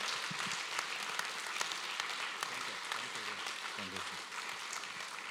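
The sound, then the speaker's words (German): A crowd claps steadily to welcome a guest speaker, a dense, continuous wash of applause lasting several seconds, with a few faint voices murmuring underneath. “Und können wir einen Applaus geben und ihm willkommen heißen?”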